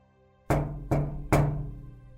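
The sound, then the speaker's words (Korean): Three firm knocks on a bedroom window beside the bed, in a fifth-floor room, in a steady, evenly spaced sequence, each with a hollow, ringing resonance that lingers between hits. Fairly loud, with no voices. “그래서 바람인가 하고 무시했는데 이런 노크 소리가 들렸습니다.”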